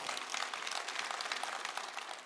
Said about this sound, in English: Yeah, come on, somebody clapping for him.